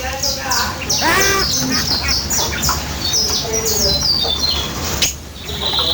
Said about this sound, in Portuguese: É esse que é o barulho da codorna? Eu nem sabia que era esse.